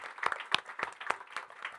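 Audience applause with distinct, fairly steady claps about four per second, sounding like a modest group rather than a roaring crowd, moderately quiet and with no talking over it.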